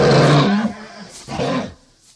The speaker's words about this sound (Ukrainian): А це Лев каже, подивився відео, е, як Лев речить, і каже: ну хіба так Лев речить? От як насправді Лев речить.